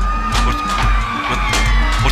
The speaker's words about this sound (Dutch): Knallende ballonnen worden voor geweerschoten gehouden. Er breekt paniek uit.